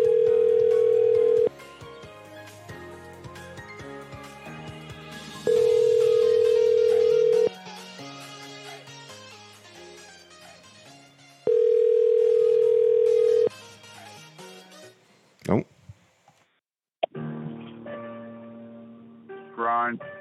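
A telephone ringback tone purrs three times in steady two-second bursts with long gaps, over busy background music, as a call is placed to a voicemail, before a voice briefly picks up near the end.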